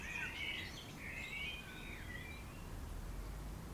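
Birds in tall old trees around a grave chirp and warble faintly in a quick cluster of high calls during the first couple of seconds, then fade, leaving a steady low outdoor rumble with no talking.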